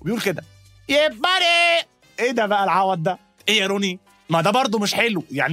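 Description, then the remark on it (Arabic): A man briefly imitates the high-pitched, strained yell of bodybuilder Ronnie Coleman grunting while training and lifting weights, a wavering sustained cry set between bursts of animated talking. “فتخيل واحد شبه روني كولمان مثلا بيتمرن روني كولمان ده اللي مش عارفه ادخلوا جوجل هم شوفوا عامل ازاي يعني اشرح لكم ايه هو كتير هو كتير قوي زي ما كانت بتقول البنت ده صوته كده بالظبط وهو بيتمرن بيرفع عمرتين خلاص”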